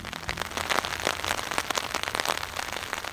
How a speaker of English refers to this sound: We're in the middle of a heavy spring rain on the southwest tip of Vancouver Island on the reserve of the T'Sou-ke First Nation, about 45 minutes from Victoria.